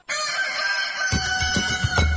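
A rooster crows in one long, drawn-out call lasting about two seconds. Partway through, a rhythmic low beat of music comes in underneath it.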